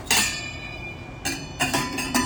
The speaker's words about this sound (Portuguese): Deixa eu tapar a panela agora.